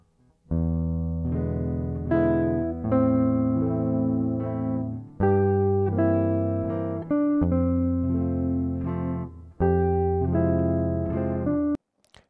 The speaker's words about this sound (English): The chord progression is very interesting, supporting a melody of mostly chord tones. Let's listen to those four measures.